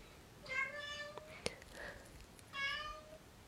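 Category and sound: animal, cat meowing loudly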